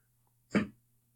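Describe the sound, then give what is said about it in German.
A single brief thump and clatter as a person topples off a chair during a recording, one short burst with quiet all around it and no talking. “Sie haben, glaube ich, gerade live gehört, wie Kevin während der Aufnahme vom Stuhl gefallen ist”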